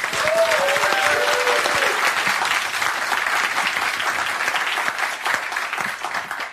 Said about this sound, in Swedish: Gott folk, ge en varm applåd till Ina Lundström.